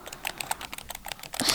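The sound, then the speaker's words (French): Rapid clicking of computer keys, a dense, uneven stream of sharp little taps, building to a busier flurry at the end, with no voices. “c'est le son du clavier de l'ordinateur.”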